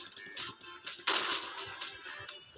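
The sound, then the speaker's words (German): A loud video game pump shotgun blast from a grey pump gun being tested in close combat bursts out about midway, sharp, amid a steady run of quieter clicks and thuds from the game. “Ich teste jetzt mal diese graue Pumpgun im Nahkampf.”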